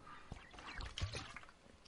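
Quiet mouth sounds of someone drinking very salty, bad-tasting water: soft wet sips and a gulping swallow around the middle, ending with a brief sharp lip smack. No one speaks.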